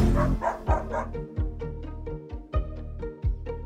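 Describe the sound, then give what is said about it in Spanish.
A dog barks repeatedly in a quick, steady rhythm, fairly loud, with about nine or ten sharp woofs and no one speaking. “Bienvenido, bienvenida, perro, ¿qué dices?”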